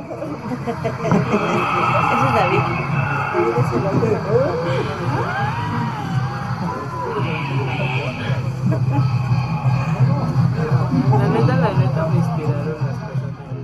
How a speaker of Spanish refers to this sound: algún momento esta psicofonía que les vamos a pasar donde entre el bullicio de la gente que está asistiendo a la Isla de las Muñecas se escucha un murmullo que justo nos describía él, que lo escucharon hasta que vieron la grabación. Vamos a escuchar.